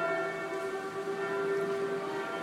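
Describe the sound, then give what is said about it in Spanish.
Church bells of the Saint-Sulpice church in Paris ring in the background, their overlapping tones blending into a steady, sustained hum with no clear individual strikes. The sound is moderately loud, and no one speaks. “Y las campanas que se oyen de fondo son las de la iglesia del Santo Suplicio, San Suplicio”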